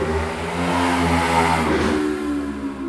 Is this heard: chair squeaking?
no